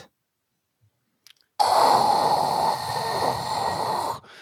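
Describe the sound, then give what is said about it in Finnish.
A single voice imitates a surprised, murmuring crowd with one sustained, breathy, rushing "ooh"-like sound lasting a couple of seconds, rising suddenly after silence and fading out at the end. “Mä teeskentelen yl- yleisöä, joka kohisee yllätyksestä.”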